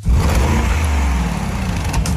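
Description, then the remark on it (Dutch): The engine of a renewed Bentley Bentayga SUV revs with a loud, deep, throaty rumble that holds steady for about two seconds, with no one speaking over it. “Wouter test de vernieuwde Bentley Bentayga.”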